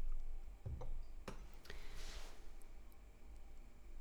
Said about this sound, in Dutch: Even een slokje van mijn thee.